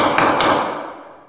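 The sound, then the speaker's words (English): A gavel strikes twice in quick succession, two sharp wooden knocks close together, followed by a loud, reverberant ring that fades away over about a second. No voices. “This is the sound of a gavel.”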